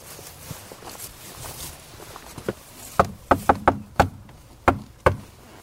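A series of sharp knocks on a hard surface, about seven raps in an uneven rhythm, clear, preceded by a few softer taps and faint background rustling.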